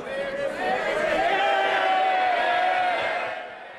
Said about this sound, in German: So wurde Boris Johnson heute erstmal ausgebuht im britischen Unterhaus. Da gab es nämlich heute eine extra Fragestunde an den Premierminister.